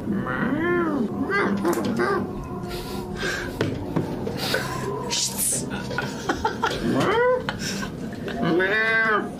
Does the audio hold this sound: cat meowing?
yes